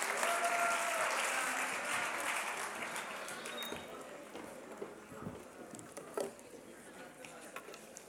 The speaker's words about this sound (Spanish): Muy bien, muy bien, un aplauso acá para...